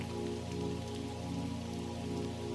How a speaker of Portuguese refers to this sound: Para começar, nós estamos em uma casa na montanha. Está chovendo lá fora.